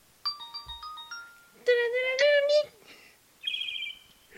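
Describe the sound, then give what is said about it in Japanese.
A voice imitates a video game startup jingle resembling the startup sound effect of the Nintendo DS version of Animal Crossing (Dōbutsu no Mori), singing a quick run of bright, stepped notes, then a louder rising melodic phrase, ending on a short, high sustained tone. “DS 版の動物の森のあの起動した時の効果音に似てたやん”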